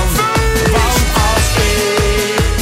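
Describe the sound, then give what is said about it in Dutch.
An upbeat party version of a Dutch pop song plays loudly, with a steady, driving beat thumping at regular intervals under bright sustained melody lines. No one talks over it. “Willen jullie liever de feestversie horen of het origineel?”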